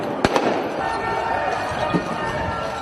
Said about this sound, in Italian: Mostrano il centro di Roma lasciato per ore in mano ai violenti che prendono a bottigliate la fontana della barcaccia, lanciano petardi e bombe carta.